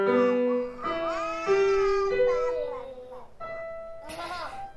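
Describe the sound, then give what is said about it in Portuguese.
A performer imitates a cat with several drawn-out, sliding meows in a sound theatre show for babies about the language of cats, fairly loud, one after another with brief gaps and no other voices. “Este espetáculo aborda a, hum, a linguagem dos gatos, sendo que está, está a falar das nossas emoções, não é?”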